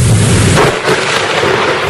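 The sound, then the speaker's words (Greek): A loud, rumbling crack of thunder from a rainstorm rolls through the full two seconds, a broad booming wash with a deep low-end swell at the start and no voices. “Κακοκαιρία έπιασε.”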